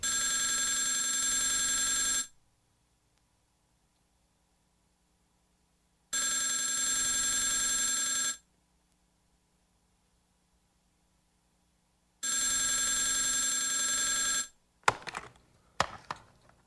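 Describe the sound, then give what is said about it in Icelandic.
A telephone rings three times in loud, steady bursts of about two seconds, with silent pauses between, followed by a brief clatter as the ringing stops. “is that another crank call?”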